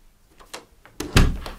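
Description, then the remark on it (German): A man shuts the door of a guest room at the end of a hallway behind him. The door swings shut with a solid thump, preceded by a few faint scuffs and a brief creak of movement, then a short rattling settle as it latches. “Er schließt die Tür hinter sich.”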